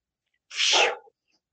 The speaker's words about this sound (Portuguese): Tem um cachorro. Meu, meu cachorro.